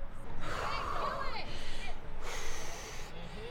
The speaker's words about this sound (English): now on her fourth and final Coors Banquet, is clearly employing some deep breathing techniques to calm the storm in her gut. She looks remarkably composed and driven.